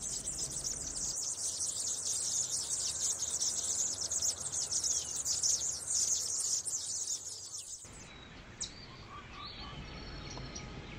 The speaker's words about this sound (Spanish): El pijé, la tingua o el espiguero gris son especies endémicas que encontramos cerca a Nilo y así suena un espiguero gris.